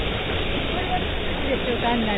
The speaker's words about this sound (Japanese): あの、気候的に言うと、T シャツで、T シャツで、風が爽やかで、まあ、日が当たってるところは暑いけど、ちょうど今ね、せせらぎの横を通ってるんで、爽やかな音が聞こえてると思うけど。